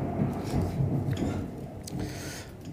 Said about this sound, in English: you can probably hear the thunder in the background. It's just hitting here now. So I hope you can hear over me.